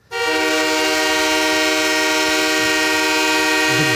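A loud, sustained train horn, an old Wabash Mines train horn called a soul horn, blares in a single continuous blast as a timer sound marking the end of each topic, its rich stacked tones holding steady from start to finish with no voices present.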